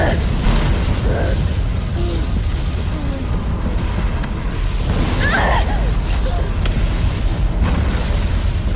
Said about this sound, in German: Weitere Explosionen.